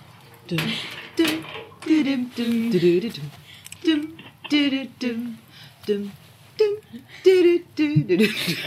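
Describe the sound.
A single voice hums and vocalizes a video game theme in short, bouncy syllables with a steady, quick rhythm, imitating the melody rather than speaking.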